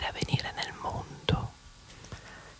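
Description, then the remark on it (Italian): Breathy whispering of a short phrase in Italian, a Mahatma Gandhi quote about the change you want to see in the world, soft and intimate in ASMR style, with airy sibilant bursts and brief pauses between the words. “Questa volta era veramente sussurrata, eh?”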